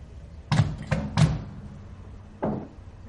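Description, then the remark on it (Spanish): A quick run of three sharp clunks as a microwave door is opened and shut while a mug is taken out, followed a moment later by a fourth, softer knock. No one speaks. “Saca la taza y cierra el microondas.”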